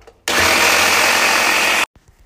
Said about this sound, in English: So, we're going to just try and grind, sorry, a bit loud, grind some beans and see what we come up with. Hold on.